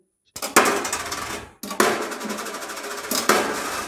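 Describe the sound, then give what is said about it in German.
Coins drop into a donation box for the Anti-War Museum (Antikriegsmuseum) in a few clattering bursts, bright metallic jingles that ring and rattle before settling, with no one speaking. “Schmeißen wir mal gleich was rein.”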